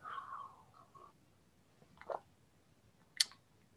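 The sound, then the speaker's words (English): Quiet sipping of hot water from a cup: a soft slurp, then a wet gulp and a small sharp click a moment later, with near silence between and no talking. “Like here, I have a cup of hot water here.”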